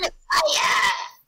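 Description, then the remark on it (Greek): A voice lets out a short, raspy, strained scream lasting about a second, mimicking an over-the-top dubbed cartoon character's battle cry, loud with a gritty, crackling edge. “Ναι, για κάποιο λόγο έτριζε τη φωνή του.”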